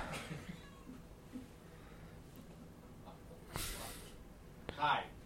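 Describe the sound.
A cat gives a short meow outside near the end, after a burst of rustling noise, with faint muffled voices and background hum throughout.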